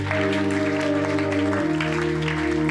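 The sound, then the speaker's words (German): A crowd claps steadily while sustained keyboard chords play underneath, the harmony shifting partway through. The applause is dense and continuous, with no voices rising above it. “Herr, lass einen Applaus geben.”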